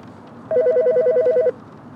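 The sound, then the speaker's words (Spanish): A telephone next to papers bearing the Hotel Browns logo and a London address, in a room at the Hotel Browns, rings once: a rapid, warbling electronic trill lasting about a second, loud, over a faint background hush with no one speaking. “Se sienta en la cama y mira el teléfono junto a los papeles con el logo del hotel, una vieja corona y una dirección londinense.”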